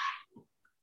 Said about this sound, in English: The hell was that? That was my cat scratching at the door.